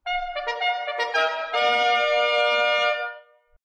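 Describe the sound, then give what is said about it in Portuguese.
A brassy bugle call plays alone: a few quick, bright notes followed by one long, loud held blast that cuts off abruptly after about three seconds. “A corneta cantou, amigo.”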